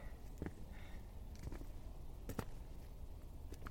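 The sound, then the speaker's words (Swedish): A few soft, uneven footsteps crunch on outdoor ground as a person walks, spaced irregularly over a quiet, low background hush with no voices. “Det enda som hörs är mina steg.”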